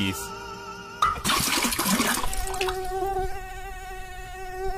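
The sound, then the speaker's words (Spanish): A rushing, watery burst of noise gives way to a steady, whining mosquito buzz that drones on close and fairly loud, its thin pitch holding level until the end. “El agua estancada en los floreros, tan común en esta época de tradición de Día de Muertos, se convierte en criaderos de mosquitos que pueden transmitir enfermedades como dengue, zika y chikungunya.”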